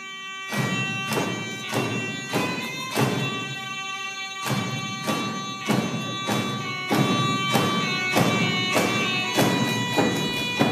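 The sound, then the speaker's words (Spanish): A nafiri, a trumpet-like double-reed wind instrument 25 to 45 cm long with three holes and reeds usually made of coconut leaves or dry bamboo, sounds a steady, reedy tone, backed by regular thumping drum beats in a brisk, even rhythm throughout. “Así es como suena el nafiri.”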